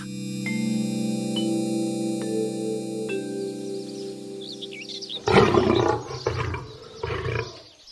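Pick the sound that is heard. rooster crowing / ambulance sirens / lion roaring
lion roaring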